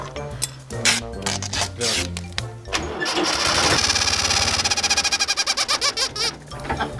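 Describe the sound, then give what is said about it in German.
An engine cranks and revs up, its exhaust forcing a rubber chicken to emit a loud, wavering squawk that pulses rapidly, then sputters in quick regular bursts near the end. No one speaks. “So, dann wollen wir jetzt das Gummihuhn mal auf den Auspuff.”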